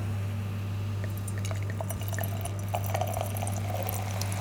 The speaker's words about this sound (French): Ah Ça, c'est un doux son. Très bien. Alors, tu vois déjà, euh, quand on sert ce, vin, moi, je suis.